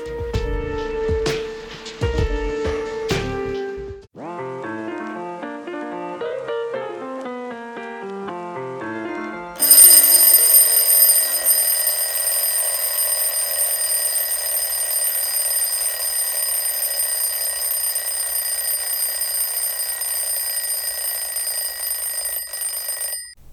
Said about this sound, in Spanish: Son las 9 de la mañana y el despertador ha sonado.